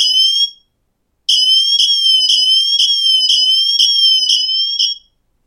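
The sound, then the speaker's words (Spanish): A smartwatch's emergency siren, selected from the watch's emergency options, sounds loudly from its speaker: a shrill electronic tone repeating in quick rapid pulses after a brief first burst and a short pause, with no voices. “Y si damos a sirena, bueno, pues mirar.”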